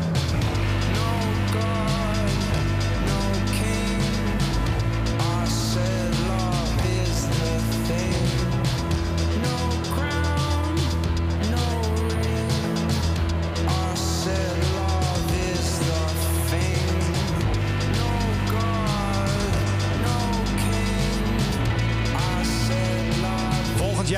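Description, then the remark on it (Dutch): A calm, soulful new rock single plays on its own, noticeably calmer than the band's earlier work, with a steady, full low end under sustained melodic lines at a consistent, fairly loud level throughout, building to an impressive climax. “Nieuwe single is uit, heet … en is opvallend rustiger dan het vorige werk.”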